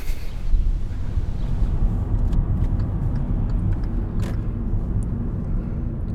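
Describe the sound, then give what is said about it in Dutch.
Steady low engine rumble and road noise from inside a moving car travelling toward the city of Zaporizhzhia, Ukraine, a continuous muffled drone with occasional faint clicks and rattles, no one speaking. “En dan zijn we weer in de auto gestapt.”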